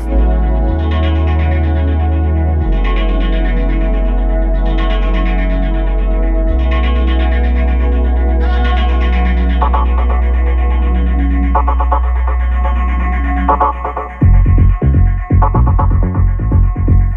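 An electronic dance track plays on its own, with a heavy sustained bass shifting pitch beneath pulsing synth chords, then breaking into choppy, stuttering rhythmic hits near the end.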